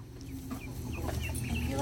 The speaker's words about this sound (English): Oh, yeah. Pick her all the way up. Look at this. no? Arm. That's a happy chicken.